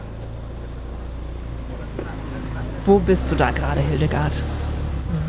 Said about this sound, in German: Ja, da sitze ich auf der Ladefläche eines ganz speziellen Geräts. Das ist ein Motorrad, aber das hat Jeep-ähnliche Reifen mit drei Rädern.